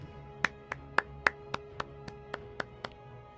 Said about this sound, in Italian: Ok, ha fatto l'applauso povero. Che ah, probabilmente ah, non si è sentita.